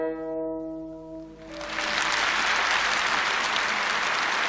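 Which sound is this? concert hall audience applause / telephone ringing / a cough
concert hall audience applause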